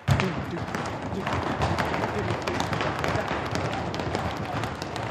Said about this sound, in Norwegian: Og så skal vi trampe og slå på lårene samtidig. Da blir det sånn